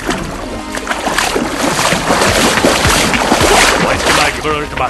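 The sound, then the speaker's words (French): A wooden dugout canoe scrapes and sloshes as it is shoved into shallow water, a steady churning of splashes and hull noise, with voices calling out underneath. “à pousser la pirogue. Allez, dans l'eau.”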